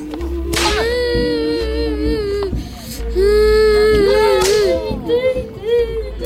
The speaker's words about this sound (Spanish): Los guaguas gritaban, lloraban viendo el tormento de aquellos inocentes.